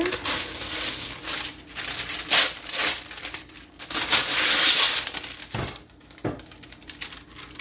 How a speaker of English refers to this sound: now what I do is I simply take some wax paper